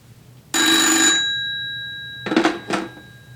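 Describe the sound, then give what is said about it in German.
An old-fashioned telephone bell rings with a loud metallic clatter, one long burst followed by two short rattling rings, with a bright tone lingering between them. “Ab dem vierten Klingeln macht's mich wirklich aggressiv.”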